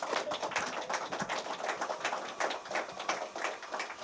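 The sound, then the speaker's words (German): A crowd applauds Fatih Cevikoglu steadily, a dense wash of many overlapping claps holding at an even level for the whole stretch, with no voices on top. “Ein Applaus für Fatih Cevikoglu bitte.”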